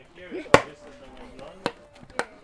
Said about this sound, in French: Faire rentrer le clou, le clou.